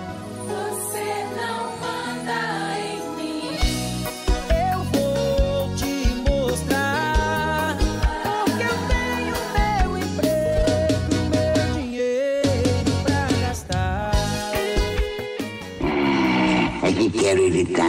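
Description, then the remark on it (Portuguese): Loud, driving orchestral music in the style of an action movie theme plays continuously, with punchy rhythmic hits and bright melodic lines building over a full, dense backdrop. “ao som de Hans Zimmer Missão Impossível. Sobe o som, editor.”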